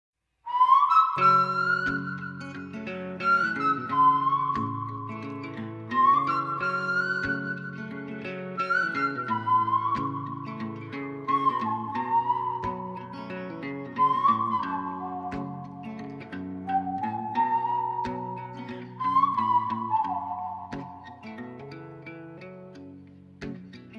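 Instrumental song intro: a high whistle-like melody in repeating phrases about every four seconds, played over steady plucked and sustained chords. Fairly close and even in loudness, with no singing or talk.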